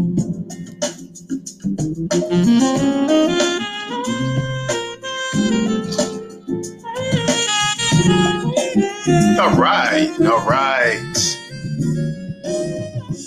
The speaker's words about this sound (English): You hear it, that smooth jazz.